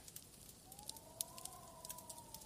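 Soft, irregular crackling and popping from a fireplace, with a thin, rising and falling whistle of winter wind blowing steadily underneath. Quiet and ambient, with no voices.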